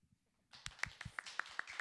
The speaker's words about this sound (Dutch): Wij geven jou een heel klein, intiem applaus.